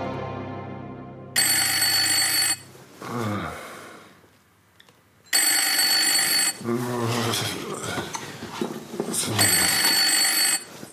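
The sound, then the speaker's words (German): A telephone bell rings loudly in three long bursts a few seconds apart, with a man's voice speaking in the gaps between the rings. “Das Telefon.”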